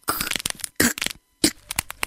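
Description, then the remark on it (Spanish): An eggshell cracking open: several sharp, crunchy bursts of crackling separated by brief silent gaps, fairly loud and heard alone with no voices. “Día viernes, el huevo se rompió.”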